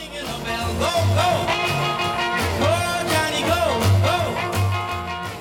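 An upbeat rock and roll song, the one rock track on the Voyager spacecraft record, plays loud and full, with a driving bassline, steady drums and cymbals, and bending lead guitar or vocal lines over the top.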